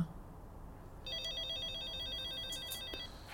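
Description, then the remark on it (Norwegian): An apartment intercom doorbell for flat 403 rings with a steady, warbling electronic tone lasting about two seconds, following a moment of low background noise. No one speaks. “Her er det bare å ringe på.”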